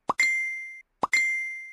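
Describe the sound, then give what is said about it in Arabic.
A phone notification alert tone plays twice, about a second apart, each a soft pop followed by a clear ringing chime that rings out briefly. It is clean, with no voices. “على مدار يومنا بتجيلنا إشعارات أو نوتيفيكيشنز كتير جدا”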